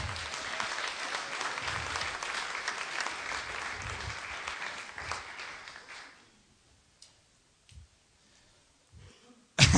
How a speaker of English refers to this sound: Come and help me, mate. Little, little round of applause. Come on.